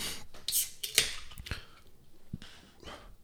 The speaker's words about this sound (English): Let me just open up a nice cold brewski.